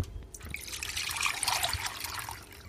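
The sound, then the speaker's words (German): Whey still holding small bits of curd is poured steadily through cheesecloth over the already strained cheese curd, a continuous splashing trickle that holds for a few seconds with no talking. “Ähm, da wir das heute auch so machen, werde ich jetzt einfach den Rest der Molke, wo noch kleine Stückchen drin sind, einfach über das Mulltuch und das schon rausgezogene Käsezeug gießen.”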